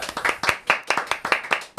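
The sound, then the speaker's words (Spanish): A short burst of applause welcoming a guest, quick, evenly spaced claps rising and falling in a steady rhythm for under two seconds with no talking over it. “un aplausito aquí a Viviana Quintana”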